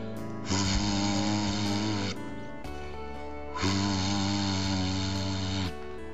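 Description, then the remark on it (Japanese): Two long, loud blasts of a steam whistle, each holding a steady, rich tone for about two seconds with a short pause between, and no voices. “汽笛の音です”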